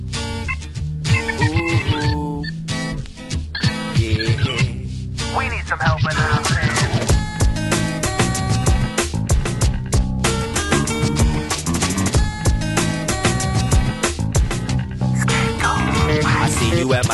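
Dense, loud electronic music from the Jet Set Radio Future video game soundtrack plays continuously, with punchy percussive hits, scratch-like accents and layered synth tones filling the track from start to finish.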